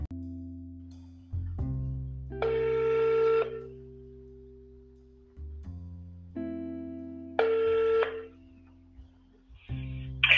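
A phone call being placed to a guest of a broadcast: short dial tones at the start, then two long electronic ringing bursts separated by a pause, with a steady low hum underneath and no talking.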